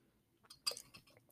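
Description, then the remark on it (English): A quiet sip of coffee from a mug: a few brief, wet slurping bursts clustered together over a hushed background, with no talking. “but, ooh, that's a good coffee.”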